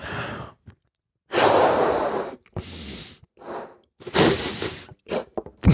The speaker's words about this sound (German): Der ursprüngliche Zaubertrick ist folgender: Man pustet den Ballon auf. Das mache ich jetzt mal hier.